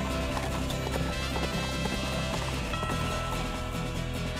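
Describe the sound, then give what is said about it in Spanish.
Horse hooves clip-clop in a steady, quick rhythm, fairly loud, with no voices, over a dense continuous backdrop of sound. “Un 5 de abril él llegó a su casa con su fuerte y valiente caballo.”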